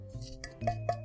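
Several sharp, hard taps on the thick, hard bottom of a pastry, each a brief bright click, coming at an uneven pace with a faint steady hum in between.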